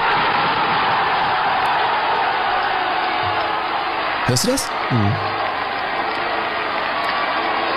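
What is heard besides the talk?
stadium crowd cheering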